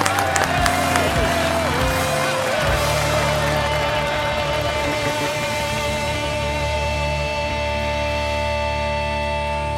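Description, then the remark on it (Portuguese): A crowd applauds steadily for about ten seconds, a dense wash of clapping mixed with cheering and the odd whistle, holding at a fairly even loudness throughout, applauding at the end of a short talk. “Então é Palmas pro palestrinho.”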